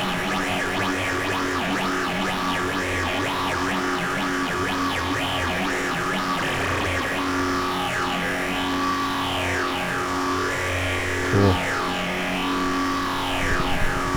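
A heavily reverberant synthesizer, with its super oscillator turned up high and nearly every setting at maximum, drones steadily, its tones sweeping up and down in wavering arcs over a sustained washed-out bed, with no voices, at moderate loudness throughout.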